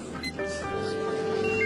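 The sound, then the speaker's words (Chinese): A steady electronic tone, like a phone ringing, holds over the murmur of a busy office, with voices talking faintly in the background. “到达忙碌紧张的办公地点，”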